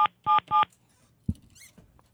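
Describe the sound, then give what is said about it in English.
Three quick, loud touch-tone beeps of a friend's phone number being dialed from memory, followed by a soft thump and faint rustling. “this is how you know your friends when you still have your friend's phone number memorized because um, because it's been the same since before there were such things as cell phones with contacts.”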